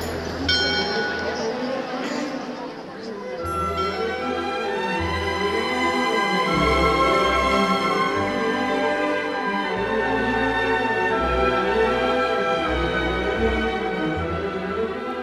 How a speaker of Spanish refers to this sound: Y a continuación, suenan las campanas en formato de 24 horas.